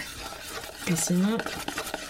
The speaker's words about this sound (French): vous entendez ça Ça, c'est le bruit d'une bonne texture de pâte à pancake.